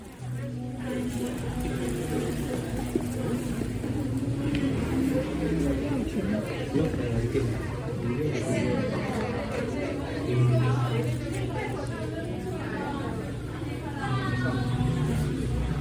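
A steady, dense babble of many overlapping voices fills the main hall of Longshan Temple in Tamsui, a constant crowd murmur of many people come to worship, with no single speaker standing out and a few louder voices briefly rising above the rest.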